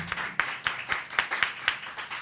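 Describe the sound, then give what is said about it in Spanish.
Audience applause for the band's saxophonist: a steady run of sharp, bright claps at a quick, fairly even pace, moderately loud and continuing throughout with no voices over it. “A …, por favor, un gran aplauso.”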